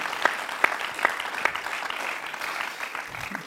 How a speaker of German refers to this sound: Wow, ist genau so. Ich könnte noch schnell einen Applaus geben, es ist so stark. Danke.